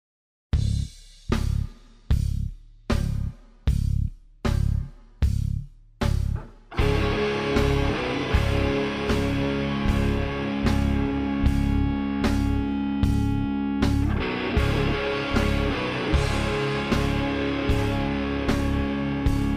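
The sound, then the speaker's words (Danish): A music track opens with sharp, evenly spaced stabs, then a loud, dense band with distorted guitar and steady drums kicks in and plays on without any voices. “lige, lad os lige høre et snas af den også, bare fordi.”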